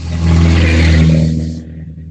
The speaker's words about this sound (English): sorry, this is a little pickup truck going by.